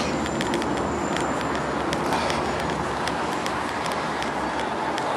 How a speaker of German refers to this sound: Man kann hier äh, so ein bisschen die Straße viel weiter runter gucken, weil es hier doch lange bergab geht jetzt. Und dann sieht man da hinten noch ein bisschen mehr von der Sonne und natürlich immer noch mehr Verkehr.